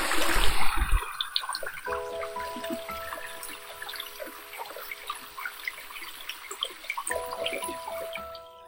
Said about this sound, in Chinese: 先给大家听一听这个潺潺流水声。